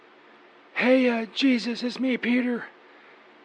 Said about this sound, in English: Uh, sorry about the background noise. The fan. It's really, really fucking loud.